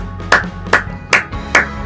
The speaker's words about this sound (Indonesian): Dan 1-0 timnya juara. Dan semua penonton berdiri memberikan namanya standing ovation.